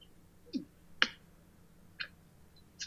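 A few small coins clink, four light metallic ticks scattered irregularly over a few seconds, bright and sharp against a quiet, steady background hum, with no talking.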